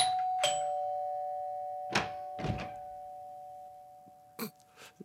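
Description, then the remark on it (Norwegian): A doorbell chime rings out, its tone lingering and slowly fading, while a few dull knocks and thumps follow at irregular moments amid quiet. “Jeg, jeg går på det der Men hver gang. Um, det er jo ikke noe ringeklokke her.”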